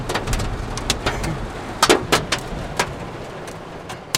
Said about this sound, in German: Jetzt haben wir Hagel hier, jetzt haben wir hier den Hagel.